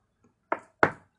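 Two distinct sharp knocks on a wooden door, with a short pause between them and a brief resonant decay after each rap.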